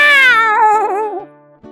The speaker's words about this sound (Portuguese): Um vulto na noite, faróis do carro refletem os olhos do gato. Miau!